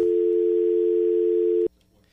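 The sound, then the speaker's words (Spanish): A steady, loud telephone tone after a listener's dropped call to a radio program drones continuously for about a second and a half, then cuts off abruptly into near silence. “vamos a ir al pueblo, que tenemos una llamada, doctor, con su permiso.”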